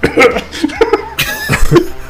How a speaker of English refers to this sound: You're, you're supposed to say a word when you do the, the cough. It's not just supposed to be.